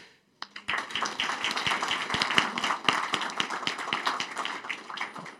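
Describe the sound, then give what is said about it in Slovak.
An audience breaks into applause after a brief silence, many hands clapping in a dense, steady patter that stays fairly loud and even throughout, with no voices; applause for representatives of political parties and movements after a discussion at the Energetika 2020 event. “Ja by som sa chcel teraz veľmi pekne poďakovať eh, zástupcom politických strán hnutí a chcem sa im naozaj poďakovať za, myslím, že vysoko odbornú úroveň diskusie a že vyslyšali, vyslyšali moju výzvu, takže ďakujem, služia si potlesk.”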